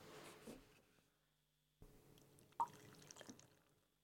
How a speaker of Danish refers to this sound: Ved du hvad, jeg tror faktisk lige for at nyde den ekstra meget, jeg skylder, jeg skylder lige mit glas. Jeg skylder lige glasset her, så kan være, jeg kan lige, øh, jeg kan lige prøve at hælde op her.